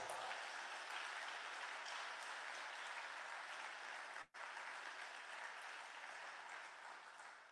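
A crowd at the CasaPound National Festival (Festa Nazionale di Casa Pound) applauds a guest, a dense, even wash of many hands clapping that holds loud throughout, broken only by a split-second gap partway through before continuing.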